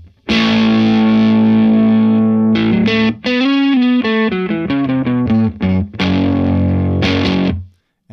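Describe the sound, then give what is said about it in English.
Crunchy, lightly overdriven electric guitar through a Vox AC15 tube amp driving a blue British-style speaker, set to a light crunch gain: a sustained strummed chord, then a quick run of picked notes, ending on another ringing chord. Loud, no voices. “I'm going to be powering these with a Vox AC15 because these are British style speakers, so might as well hit them with a British style amp”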